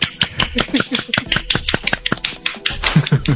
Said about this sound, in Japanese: 素晴らしい。すごい、あの、拍手が響いてるんですけど。ありがとうございます。ありがとうございます。